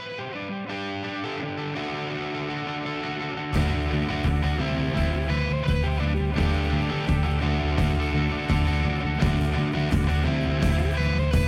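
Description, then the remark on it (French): A music track with heavily distorted, effects-laden guitars, played as a musical break in a discussion; a thinner intro swells into a loud, dense full-band section a few seconds in and stays driving. Nobody speaks. “Eh bien, nous allons faire une pause musicale avant de poursuivre notre discussion.”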